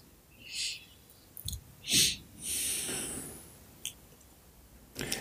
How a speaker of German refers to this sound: Ja, nach dem Einatmen, da muss man dann danach normalerweise durch die Nase atmen für circa 30 mhm. Sekunden. Da wird Sauerstoff transportiert.